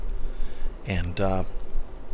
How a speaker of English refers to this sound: The noise you're hearing underneath me is a fan. I have a fan in the window, it's about a foot away from me. It's on because it's summertime